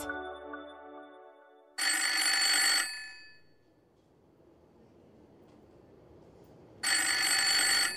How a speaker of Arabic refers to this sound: إنه خريف عام 1972 يرن هاتف بأحد المكاتب في جمهورية رومانيا إنه مكتب وكيل أعمال لاعب التنس المعروف إليي نستاسي والشهير بناستي